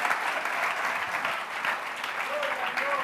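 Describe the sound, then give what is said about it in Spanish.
Steady applause from a church audience, a dense, continuous patter of many hands clapping for about three seconds at an even loudness, with a faint voice briefly audible underneath. “Un aplauso a esta congregación tan bella.”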